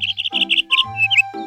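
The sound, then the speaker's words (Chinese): A robin chirps in a quick run of high, bright notes, about five rapid chirps followed by a short rising whistle and a few more twittering calls, with no voices. “小知更鸟探出头来：“ 差点忘了，还有一只知更鸟。”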